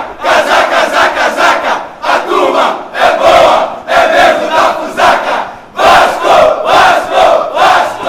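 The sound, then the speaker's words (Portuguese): A large crowd of Vasco da Gama football fans chants the club's rhythmic battle cry in unison, loud and sustained, with brief pauses between repeated phrases and the voices swelling back in each time. “A canção também é uma homenagem ao grito de guerra da torcida do Vasco da Gama.”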